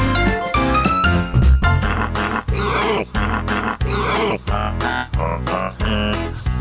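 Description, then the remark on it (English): A loud, bouncy instrumental of Jingle Bells plays on its own in steady rhythmic phrases with brief dips between notes, a short festive holiday music bumper on The Pet Show radio program with no talking. “Ah, jingle all the way.”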